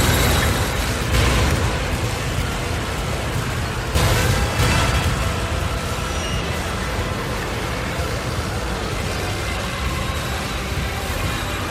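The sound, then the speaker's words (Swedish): A dense, loud war soundscape of marching feet, constant rumbling machinery and clanking tank tracks, with heavy bursts near the start and a rough, grinding texture throughout. No one speaks. “Kan vi få höra lite larmfötter och bandaggregat”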